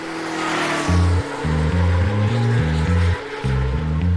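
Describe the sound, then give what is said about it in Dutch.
Deep, rumbling engine roar of hundreds of motorcycles (Harleys, Kawasakis, Suzukis, Hondas and Yamahas) heading to the circuit in Assen for the annual TT in late June; it surges and drops in stepped pulses like revving and shifting gears, loud and continuous over a constant wash of road noise. “motoren. Honderden, duizenden Harleys, Kawasaki, Suzuki's, Honda's en Yamaha's uit heel Europa zijn onderweg naar het circuit in Assen, waar de jaarlijkse TT gehouden wordt.”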